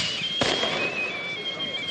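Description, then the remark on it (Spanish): Fireworks rockets going off as a boat is launched into the water: one sharp bang near the start, then thin high whistles streaking on under a steady hiss of crackling, fairly loud and continuous. “La muchacha mira de reojo a Kiko y este le sonríe, mientras el cielo se llena de cohetes.”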